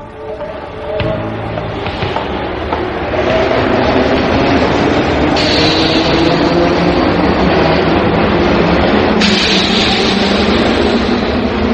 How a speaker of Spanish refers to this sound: Dejé pasar los trenes hasta que me di cuenta de que llevaba una hora en el andén y ella no aparecía.